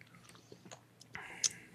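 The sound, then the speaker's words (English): Quiet mouth noises, then a short airy slurp of someone sipping a drink, ending in a louder wet swallow or lip smack. No one speaks. “Oh, you're gonna take a sip.”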